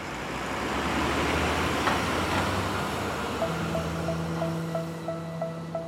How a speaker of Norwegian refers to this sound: da Wolfgang satte seg og bussen begynte å kjøre